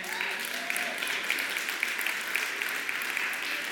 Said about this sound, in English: why is it only people over 50 who are clapping right now?